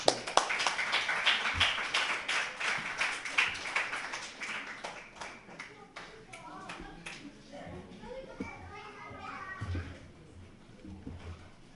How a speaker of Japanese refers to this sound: 拍手でお迎えしましょう。